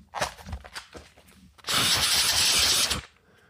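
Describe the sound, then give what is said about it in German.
A few soft handling clicks and rustles as a game cartridge is taken out, then a single strong, breathy blow of about a second and a half as someone blows the dust and lint out of the bottom of the cartridge. “Stimmt, einmal den Staub rauspusten.”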